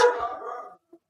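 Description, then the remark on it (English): A single sharp, loud dog bark, trailing off over most of a second, followed by a faint short yip or sound after a brief pause. “Oh, sorry about the dog.”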